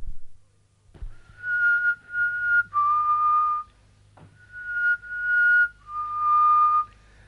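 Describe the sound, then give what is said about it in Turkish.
A flute plays a short, simple tune in two matching phrases, each a few held mid-to-high notes that step upward, over a steady low hum, with no talking. “Flüt de çalabilir mi? Elbette.”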